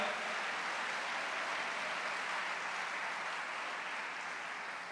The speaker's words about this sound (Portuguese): Só quem recebe, levanta as mãos e aplauda o Senhor e diga aleluia.